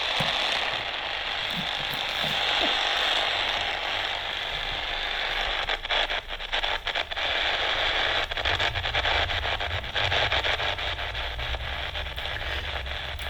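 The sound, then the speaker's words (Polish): Loud, continuous static hiss from a radio receiver picking up electrosmog in a city centre, a dense wash of noise with a low hum underneath. Bursts of crackling clicks and very short breaks of tens of milliseconds come toward the middle. “No, na razie to jest jeden wielki szum.”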